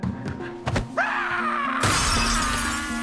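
A couple of dull thuds, then a bright, crashing burst of glass shattering as a falling player in a glass-bridge game smashes an ordinary glass panel, its sharp high tinkling debris ringing on loudly for over a second.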